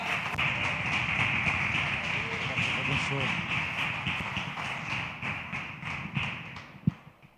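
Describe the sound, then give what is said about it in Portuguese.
A church audience applauds to welcome the pastor, in steady, dense clapping that carries on for several seconds, with murmuring voices mixed in, thinning toward the end where a single sharp thump stands out. “Vamos receber o homem de Deus com palmas para Jesus.”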